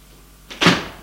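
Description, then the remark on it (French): A heavy prison cell door swings open at one in the morning: a brief scrape followed by one loud, ringing clank that slowly fades, in an otherwise quiet setting with no voices. “la porte de la cellule s'est ouverte.”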